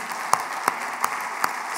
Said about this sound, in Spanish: Y si Dios ha sido, eh, sabes que yo quiero saber, si Dios ha sido bueno contigo, quiero que aplaudes esta mañana. Amén